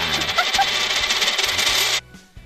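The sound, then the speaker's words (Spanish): A coin is tossed and lands sol (sun) side up, making a steady, bright metallic rattle that lasts about two seconds and then cuts off abruptly. No one speaks. “Lanzo la moneda.”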